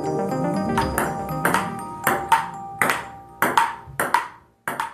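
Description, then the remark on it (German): A table tennis ball is struck and bounces in a quick rally, about nine crisp clicks at an uneven pace, with a faint steady tonal hum underneath. “Es kommt darauf an, wie er getroffen wird, mit welcher Technik, mit wie viel Kraft.”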